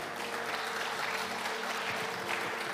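A church audience applauds the Lord together, a dense, steady wash of many hands clapping at an even loudness for a few seconds with no one speaking over it.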